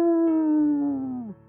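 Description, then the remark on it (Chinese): A wolf stretches its neck and lets out one long, loud howl late at night in a mountain valley, holding a steady pitch for over a second before sliding downward and cutting off. No one talks over it. “只见这狼呢，伸了伸脖子，大声的就开始嚎叫起来，嗷！”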